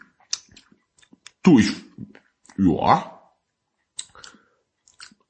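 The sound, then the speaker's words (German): Wet lip smacks and mouth clicks from people smacking loudly right up against a microphone with no pop filter, scattered and irregular, broken by two short bursts of someone speaking. “Es ist, wir schmatzen super eklig ins Mikrofon.”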